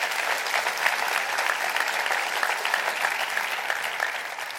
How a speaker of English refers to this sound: Clap your hands. That's all right.